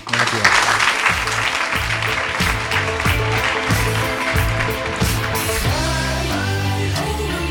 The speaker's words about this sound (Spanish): Te deseamos mucha suerte como escritor y pedimos un fuerte aplauso para él, por favor.